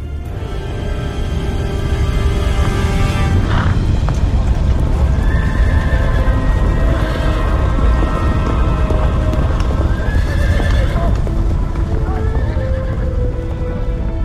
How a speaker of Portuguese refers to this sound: Aquilo quer dizer que Ramsés e as suas tropas já estão a poucos quilómetros daqui. Aquilo é a nuvem de pó que se levanta quando há milhares de cavalos e carros de guerra em movimento.